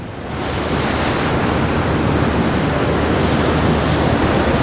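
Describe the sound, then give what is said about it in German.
Loud ocean waves surge and crash against a boat in a dense, continuous roar, with wind noise mixed in and no clear pauses between them. No one speaks. “Das Meer ist kein Tier, das Unterwerfung anerkennt. Sie ist gnadenlos und hieb weiter mit mächtigen Schlägen auf das Boot ein.”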